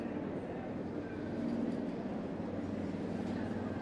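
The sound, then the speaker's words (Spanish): A helicopter flying quite high over Bogotá approaches with a red bag hanging from it, its low, pulsing rotor thrum droning steadily and growing slightly louder, with no other sounds over it. “Hoy el sonido que tengo por compartir es el de un helicóptero.”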